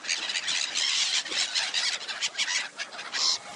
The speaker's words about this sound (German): Die Insel Rita Werder direkt im Stettiner Haff. Lachmöwen und Seeschwalben brüten hier zu Hunderten.